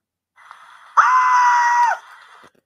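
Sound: human scream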